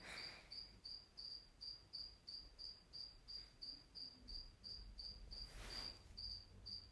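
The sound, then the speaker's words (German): A single cricket in a terrarium chirps steadily in rapid, evenly spaced pulses, moderately loud, with a low background hum and a brief soft rustle; no one speaks. “Das ist das Geräusch einer Grille, die im Terrarium drin ist und nicht gefressen wurde”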